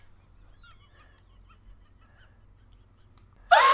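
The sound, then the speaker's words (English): A few quiet seconds with faint, scattered chirps, then a female dog jumps onto someone at a microphone with a sudden loud burst of noise that has a brief honk-like tone, cutting off at the end. “No, she just jumped on me.”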